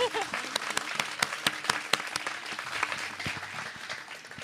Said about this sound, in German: Und neben mir sitzt eine Person, die sich auf die Bühne zu uns traut. Erstmal großer Applaus uh, für genau. den Mut.